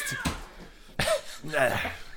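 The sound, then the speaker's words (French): Pet cats fighting and chasing each other in a house: sharp hissing bursts and a drawn-out, wavering yowl, short and scrappy, at moderate loudness over a faint background. “Attends, mes chats se battent”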